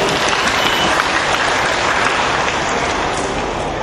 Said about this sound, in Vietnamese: hãy cho tràng có tay để khen ngợi chính mình